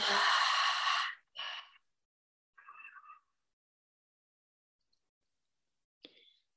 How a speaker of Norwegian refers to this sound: Så vi skal puste inn gjennom nesa. Så hold og pust ut med en åpen munn.